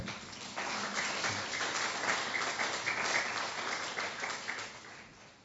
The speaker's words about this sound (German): Kurzen Applaus.